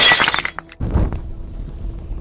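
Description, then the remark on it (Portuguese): A glass bottle, a Molotov cocktail, is thrown and smashes against a wall in a bright, loud burst of shattering and tinkling shards, followed by a heavy low thump and scattering debris that trails off. No voices. “Ah, mas você nem precisa de rolagem para isso, você só estilhaça o, frasco de vidro ali na, na parede, né?”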